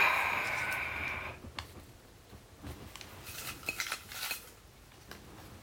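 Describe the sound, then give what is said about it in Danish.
Draw lots rattle and clink inside a container being shaken in a studio, a jumble of light irregular clicks, starting with a brief scraping rush and then loose tumbling taps with no talking. “Ja, nu skal jeg ryste den for dig.”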